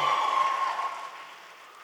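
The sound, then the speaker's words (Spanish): A crowd in Mexico City, urged to shout hallelujah, roars and applauds in a dense, steady wash of clapping and cheering that gradually fades over about two seconds, with no single clear voice standing out. “Shout hallelujah. Grita aleluya.”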